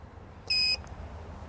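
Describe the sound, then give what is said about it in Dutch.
A doorbell gives one short electronic beep, steady and fairly loud, lasting about a third of a second before cutting off, with only a low background hum around it and no talking. “Oké, okay, dan gaan we bellen.”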